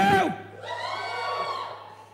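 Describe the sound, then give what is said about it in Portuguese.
A church audience lets out a loud collective shout and cheer in answer to who has registered for a conference, swelling briefly then sustaining with overlapping voices, reverberant. “Não, queria um grito. Quem já se inscreveu?”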